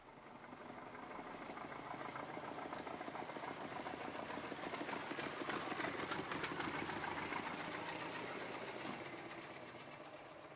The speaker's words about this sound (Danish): Der kom en gammel bil kørende ned ad vejen. Og endnu en bil.